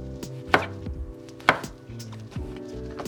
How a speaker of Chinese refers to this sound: 好，那我们香菇部分我们就是切细，好，切细段。其实香菇我也还蛮喜欢切的，它就是很很软，很好切。